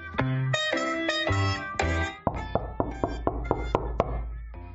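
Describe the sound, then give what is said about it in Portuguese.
A brief tonal, musical passage gives way to knocking on a door: about eight sharp, evenly spaced raps in a steady rhythm, each fairly loud, with a low sustained tone beneath them. “O rato do campo correu para a porta animado para ver quem batia.”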